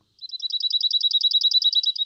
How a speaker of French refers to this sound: Sur l'axe horizontal, disons à gauche, le son pur, le sinus, les chants d'oiseaux,